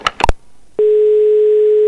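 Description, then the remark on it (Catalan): A few quick dialing beeps, then a steady, loud telephone ringing tone starts and holds, heard alone, as a phone call is placed. “Ah, estem trucant.”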